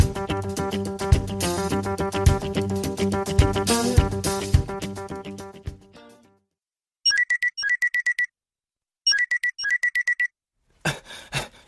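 phone ringing

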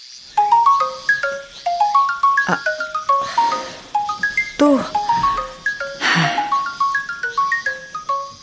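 phone ringing

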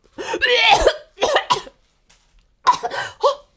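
hard coughing

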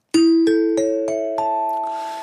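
ding-dong-dang correct-answer chime

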